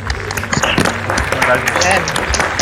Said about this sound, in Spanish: Oigan, pues felicidades, un aplauso para ellos, los jóvenes creativos de Colombia, chicos.